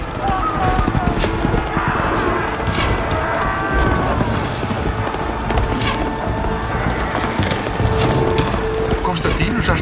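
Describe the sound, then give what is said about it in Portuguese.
Many horses' hooves clip-clop in a dense, rapid, continuous drumming as Constantine's cavalry charges Maxentius's horsemen, striking them with large iron-spiked clubs, with shouting voices and a clattering din mixed in throughout. “Estão a dar violentas pancadas com elas nos cavaleiros de Mascêncio, que caem de imediato dos cavalos.”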